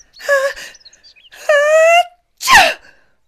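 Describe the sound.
A voice acts out an exaggerated sneeze: drawn-out, rising 'ah... ah...' breaths that build up before a loud, sharp burst. It is theatrical, with no other sounds.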